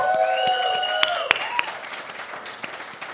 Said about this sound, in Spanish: Un aplauso para Lumara, por favor.